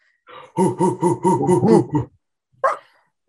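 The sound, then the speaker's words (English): A person imitates a dog barking: a quick, loud run of about six rhythmic barks, a short pause, then one final clipped bark. “Dog impression, bark impression, not as uh not in my prime tonight.”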